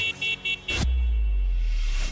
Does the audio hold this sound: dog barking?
no